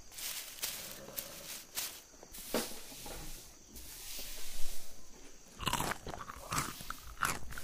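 A horse named Homero, a purebred chestnut Arabian, crunches and chews an apple on a horse ranch, with repeated crisp, crackling bites and wet grinding in an irregular rhythm, moderately loud with no talking.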